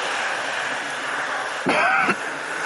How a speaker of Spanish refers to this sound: Esta tos